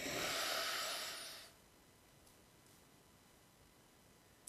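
A single loud, wet sniff drawing mucus up through the nose, lasting about a second and a half, then near silence with faint room noise and a tiny click at the end.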